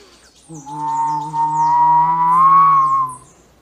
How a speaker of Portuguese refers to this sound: Por isso, quando você estiver de férias aqui na praia e de repente o tempo mudar com um vento forte que entra assobiando,